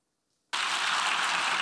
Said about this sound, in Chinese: 联合国大会现场掌声响起，荧幕上写着一百四十三票赞成，五票反对，三十五票弃权。